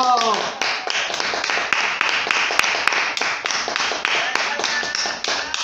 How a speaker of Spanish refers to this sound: Te vamos a aplaudir. Bravo.